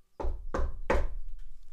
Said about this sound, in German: Und schließlich kam er in das Dorf, fand das Haus, in dem Großvater und Großmutter lebten, und klopfte so laut er konnte an die Tür.